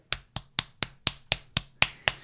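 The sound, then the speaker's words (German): Nine sharp, bright slaps in a quick, steady rhythm, like hands smacking skin to imitate the sound of testicles slapping against buttocks during sex from behind, each crisp and loud with a short decay and no talking. “Die an, an die Pobacken klatschen, ja.”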